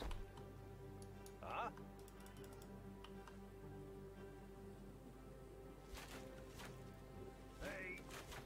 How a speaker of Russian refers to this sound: Блин, у кого из вас так жутко клацает клавиатура? Наверное, у меня.